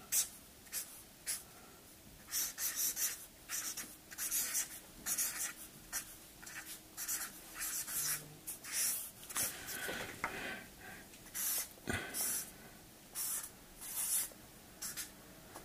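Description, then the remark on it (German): A slightly broader pen scratches and scrapes across paper in a steady series of short strokes, fairly loud, with brief pauses between bursts and no one speaking. “Ich habe ein bisschen, ein bisschen dünnen Stift gewählt, nämlich doch ein bisschen breiteren.”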